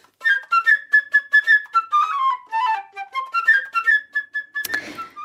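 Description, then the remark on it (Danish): A bright, agile flute plays a quick, chirping bird-like melody of short trilled notes, ending with a brief breathy burst of noise. The flute plays the bird, Peter's best friend, in the story. “Peters allerbedste ven, det er fuglen. Og fuglen, den bliver selvfølgelig spillet af en fløjte.”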